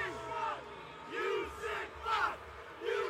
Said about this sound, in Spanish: Todavía ni siquiera empieza la temporada y ya tienes en juegos así gritándole a Deshaun Watson. Los fans de los Jaguars ahí. De los jaguares, gritando.